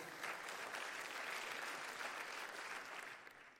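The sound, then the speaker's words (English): An audience breaks into applause, a dense, steady wash of many hands clapping at once, sustained evenly for a few seconds before starting to taper off at the end. “If one person claps, we all have to.”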